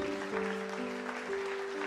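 crowd, audience applause

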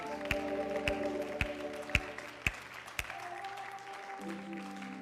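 crowd, audience clapping

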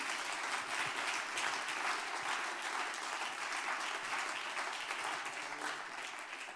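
crowd, audience applauding

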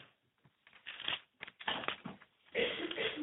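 household object, flipping through book pages

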